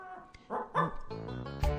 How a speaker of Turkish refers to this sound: Köpek mi? Hayır o efekti.